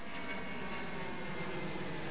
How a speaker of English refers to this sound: The only problem is you can hear the planes taking off from Samudio International Airport.